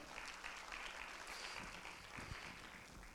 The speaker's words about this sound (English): Give the Lord a hand clap offering this morning.